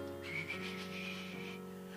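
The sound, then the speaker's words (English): Someone whistles a soft, breathy, wavering tone for about a second and a half, imitating the whistling of the cold December wind in the town of Toro, near Jos in Nigeria, over a faint steady low hum. “And then you hear the sound of the wind, whist- the whistling of the wind.”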